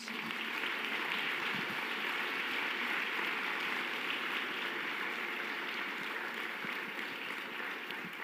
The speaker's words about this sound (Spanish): Dale esa ovación al Rey Jesús.